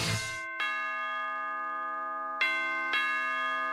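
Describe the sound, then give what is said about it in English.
A doorbell chimes twice in a ding-dong pattern, each pair of bright tones ringing out and sustaining, with a short pause between the pairs. Clear, with no voices. “Cancer doesn't ring the doorbell when it shows up.”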